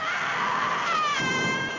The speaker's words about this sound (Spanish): La madre gritó.